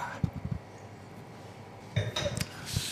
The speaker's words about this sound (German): Lass noch mal Stößchen noch mal. Stößchen. Noch mal Stößchen. Komm hier ans Mikro.